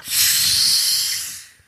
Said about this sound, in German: Das ist das Geräusch der Flasche.